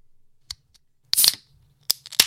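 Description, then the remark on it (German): A lemonade bottle being opened: a sharp click, a brief fizzy hiss of released pressure, then a couple more crisp snaps of the cap, with no talking. “wir müssen ja erst öffnen. Genau, erst also öffnen. wir machen mal auf.”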